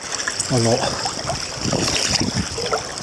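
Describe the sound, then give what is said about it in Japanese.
Wet splashing and sloshing of water as someone swims among floating ice at Shikaripesco, surface water about 0 °C, while recording, with irregular bursts of splashes and a brief voiced sound early on, over a steady hissy background. “はい、今、氷の上を泳いで、撮影、撮影じゃないや、録音しています。”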